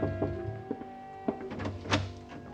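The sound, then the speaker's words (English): A few scattered, muffled knocks on a hotel room door, irregularly spaced over a steady low hum in the background, with no voices. “The following morning, I was just leaving my hotel room when there was a knock at the door.”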